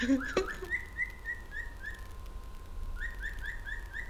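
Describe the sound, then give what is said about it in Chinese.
A chicken belonging to the speaker's household calls at home, fairly far off: two runs of about five short, high, peeping notes in a steady rhythm, separated by a pause, fairly faint over a low background hiss, with no one talking. “我的鸡，我们家的鸡正在叫。”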